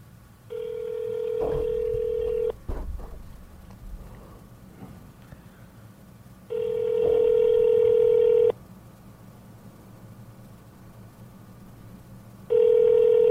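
A phone call rings unanswered through a speakerphone: a steady electronic ringback tone sounds for about two seconds, pauses, then repeats three times at regular intervals over faint room noise.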